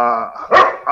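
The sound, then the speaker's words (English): Dogs fighting with each other bark in quick succession, two sharp loud barks following a whining, harmonic yelp, sounding agitated. “excuse my dogs. They're they're fighting over Teva.”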